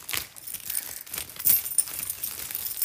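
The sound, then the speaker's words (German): Keys jingle and clink as a key is passed over and handled, a steady run of small metallic rattles with a couple of brighter chinks, no voices. “Gib mal ah, den Schlüssel.”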